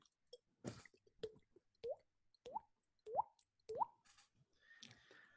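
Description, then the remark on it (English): A voice imitates dripping water with a string of about six hollow, rising mouth plops, evenly spaced, with no talking in between. “I can make uh, I can make a sound with my my my mouth that sounds like water dripping.”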